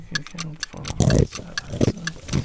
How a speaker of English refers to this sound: That is an awfully loud clock. Only the loudest clocks for the out of all doors offices.